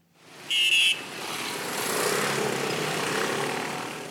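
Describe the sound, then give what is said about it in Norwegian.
Street traffic in Venezuela passes close by a large rubbish container, a broad engine rumble swelling and then slowly fading, with a brief high whine near the start. No one speaks. “Han står oppi en diger søppelcontainer og enser ikke trafikken som stryker tett forbi.”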